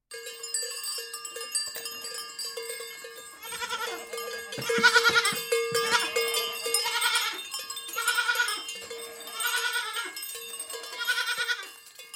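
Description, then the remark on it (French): Several goats bleat in quick, wavering cries over a steady ringing of bells, with the bleating growing louder and denser after the first few seconds, then continuing in irregular bursts. “Et puis, et puis, il y a les chèvres.”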